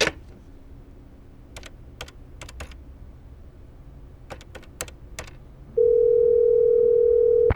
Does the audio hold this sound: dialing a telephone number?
yes